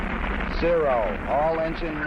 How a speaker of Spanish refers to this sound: Todos los motores andando. Tenemos el despegue